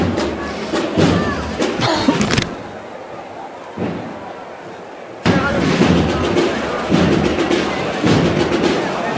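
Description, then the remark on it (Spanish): A heavy procession float carrying the Virgin is lowered and thuds down onto the street at the doors of San Julián after a band march, amid loud crowd noise, which drops briefly to a hush before a broad wash of applause and crowd sound swells back up. “Sí, pues ahora el paso acaba de arriar, después de haber interpretado esta marcha,”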